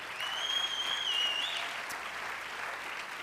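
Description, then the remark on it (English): An audience applauds to thank teachers, dense clapping at an even level throughout, with a faint high whistle-like tone drifting over the first half. “Let's, let's thank them out loud.”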